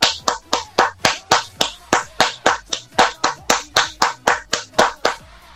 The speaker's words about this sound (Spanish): ¡Aplausos, por favor!